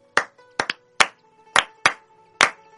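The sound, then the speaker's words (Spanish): Hands clap out a syncopated candombe rhythm, about eight sharp, loud claps with uneven spacing, including a quick double clap. A faint steady hum sits underneath, and no one speaks. “para quien no entiende, esto es candombe.”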